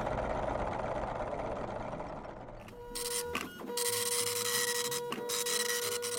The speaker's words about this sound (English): Carl, the station manager's getting ready to print us off our first question